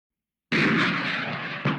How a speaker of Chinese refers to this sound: 一声震耳的爆鸣，火箭弹在空中爆炸。绽放出一团耀眼的烟火，闪的武装直升机上，许多人都不得不抬手遮住眼睛。